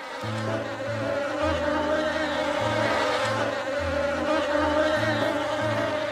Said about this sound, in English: I've lived in Branchburg for 23 years, and I currently keep 160,000 bees in my attic.